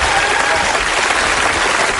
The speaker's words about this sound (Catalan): Ara, T'han aplaudit i tot.